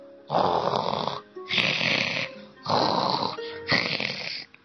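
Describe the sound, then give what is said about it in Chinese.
Loud, rasping snoring from sleeping little animals, in four steady breaths, each lasting about a second, evenly spaced with brief pauses between them and no voices. “他们可睡得真香呀！”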